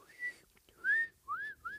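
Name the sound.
imitated whistling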